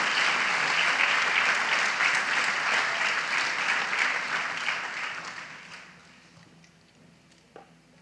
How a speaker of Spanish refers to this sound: démosle fuerte esas palmas al Señor.